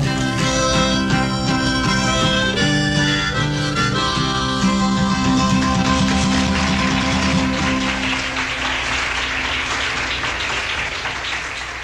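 A live song's final sustained notes ring out, then give way to loud, steady audience applause, a dense wash of clapping that fills the last few seconds.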